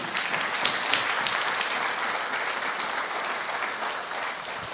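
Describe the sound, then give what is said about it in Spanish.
A large group claps steadily in sustained applause given as an offering of applause to the King, a dense, even wash of many hands that stays loud for the whole stretch with no voices speaking over it. “Denle una ofrenda de palmas al Rey.”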